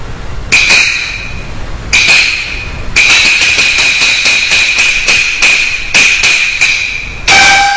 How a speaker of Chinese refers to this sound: 何人叩门？